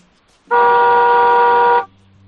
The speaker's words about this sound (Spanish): bueno, pues vamos a ver ese coche antiguo del 2003, cómo suena el claxon? Dale un toquecito de dos segundos, a ver cómo suena